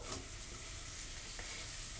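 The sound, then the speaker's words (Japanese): Steady, crackling sizzle of a thin omelette (usuyaki tamago) frying in a pan, a continuous hiss with fine popping, with no speech. A faint scrape or tick sounds near the end. “薄焼き卵を作りながら瓦そばの話”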